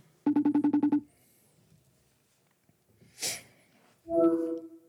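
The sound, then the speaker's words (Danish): A quick run of about eight clipped telephone keypad beeps is dialed, followed by quiet, a short breathy rush of noise, and then a steady ringing tone starting up. “Jeg ringer op til ham her.”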